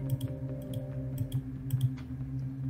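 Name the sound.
computer mouse clicking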